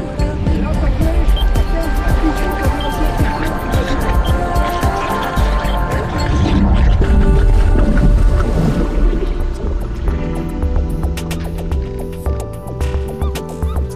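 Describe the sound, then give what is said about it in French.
A detector beeps loudly in rapid repeated pulses as it passes over a shipwreck, set against a steady rumble of boat engine and water noise. “Ça donne ça, ça bip fort quand on tombe sur une épave, un grand moment d'émotion.”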